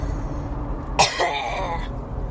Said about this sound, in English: Um, but I'm about to cough.